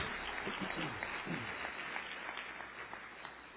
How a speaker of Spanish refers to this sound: Le puede dar un aplauso a Dios, sí.